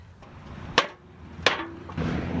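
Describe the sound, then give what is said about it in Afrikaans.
Two sharp, loud hammer blows land about three-quarters of a second apart as two shack builders work on a shack roof, each a crisp knock over a low, steady background rumble with no one speaking. “Die manne is al besig om die dak te kap.”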